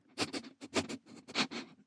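Three quick clusters of breathy, rhythmic sniffs, each a burst of two or three short nasal inhales, fairly loud and alone without talk, likely a voice imitating the story character Elliot sniffing the air and smelling Bockwurst.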